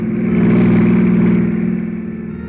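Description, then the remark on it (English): A long yellow convertible car speeds toward the listener, headlights sweeping, its engine roaring loudly with a steady mid-pitched drone and hiss that swells quickly, then begins to fade. No one speaks. “When the sudden splash of a pair of headlights sweeping my way fast sent me sprawling for cover without so much as a reason why.”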